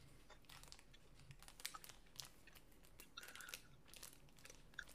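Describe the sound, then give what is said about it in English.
Soft, sticky chewing of fruit snack gummies, a steady run of wet, squishy mouth clicks and smacks at a low level with no talking. “Let's eat some that. gummies.”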